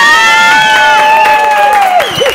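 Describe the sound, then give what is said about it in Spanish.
A loud talk-show audience cheers and whoops for a couple of seconds as two guests are introduced, with long, high-pitched shouts and rising and falling yells over a steady wash of audience noise. “¡Un aplauso!”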